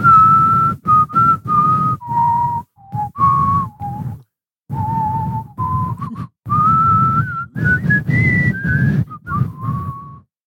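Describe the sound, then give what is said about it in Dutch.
Someone whistles a familiar rock anthem melody, clear, in sustained phrases that rise and fall with short pauses between lines, carrying on for about ten seconds without any talking. “We doen … van ….”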